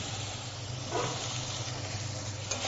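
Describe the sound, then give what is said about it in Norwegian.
White wine sizzles in a hot pan over sautéed vegetables in olive oil and butter, the alcohol cooking off, a steady, dense hiss that keeps going for the whole stretch with faint crackles and a slight swell partway through. No one speaks. “Lar det frese godt inn, så alkoholen blomstrer ut.”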